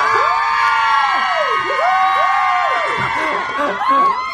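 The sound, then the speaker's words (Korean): Visitors at an open studio, fans called Melody and Honey10, cheer and shout continuously, many overlapping high voices whooping with rising and falling pitch, loud and sustained throughout with no speech on top. “근데 이게 우리 직접 오픈 스튜디오에 오신 분들이 직접 환호성을 질러 주신 겁니다.”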